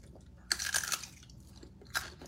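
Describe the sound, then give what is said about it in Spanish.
A crisp, crunchy bite into a radish, followed by a few wet chewing crunches and then another sharp bite, with no one talking. “Oye, este es un rábano.”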